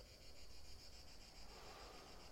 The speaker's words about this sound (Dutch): En je zet jezelf op een positieve manier aan, waarbij tegelijkertijd de krekel weer aangaat.